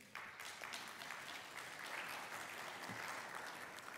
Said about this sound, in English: Let's have a round of applause for our, our worship's music today.